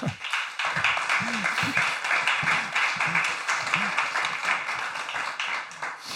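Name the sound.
audience applause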